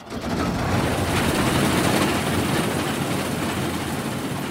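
A large combine harvester engine suddenly roars to life and keeps running loud, a dense, steady mechanical rumble with a constant rattling clatter layered through it, as the machine rattles toward a man.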